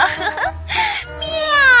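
A cat meows in a few loud, whiny cries. The last one is long and drawn out, with a bending pitch, and no one talks over it.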